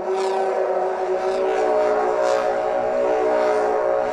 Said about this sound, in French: Là, il fait simplement tournoyer un haut-parleur au bout d'une ficelle.